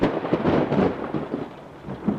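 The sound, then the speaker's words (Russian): A loud, rolling clap of thunder in a rainstorm rumbles low and heavy, surging and fading in uneven waves over a couple of seconds, with a faint hiss like rain beneath it and no voices. “А когда они задержались на мне, я уже не смог сдержаться и завопил, что есть мочи, но мой крик утонул в очередном раскате грома.”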